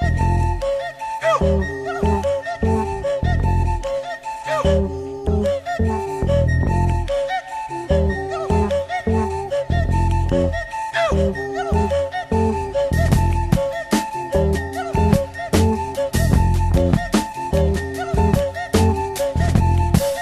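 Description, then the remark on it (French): A high, breathy whistle takes turns with a singing voice in a quick, steady rhythm, the two alternating closely in a lively, dense pattern of Pygmy music with no speech. “une pièce qui s'appelle Hindou, qui est un sifflet qui alterne avec une voix dans la musique pygmée”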